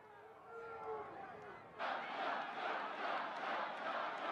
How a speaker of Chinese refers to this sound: 民众大喊“川普”